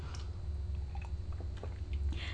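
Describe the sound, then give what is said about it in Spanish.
A quiet second sip of coffee: soft slurping and wet mouth sounds over a steady low hum, with no one speaking. “el segundo buchito de café estaba delicioso, un poco más fresco ya,”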